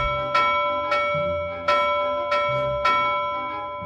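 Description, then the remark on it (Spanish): Local church bells ring continuously in the early afternoon, five bright clanging strikes at a steady, slightly uneven pace, each leaving a long sustained hum that overlaps the next. Loud, with no voices. “Súbitamente, en las primeras horas de la tarde, las campanas de la iglesia comenzaban a repicar sin cesar.”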